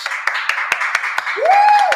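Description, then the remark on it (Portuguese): An audience claps in a steady rhythm, sharp regular claps over a dense wash of applause, while a rising whistle joins in near the end. “Só de palmas!”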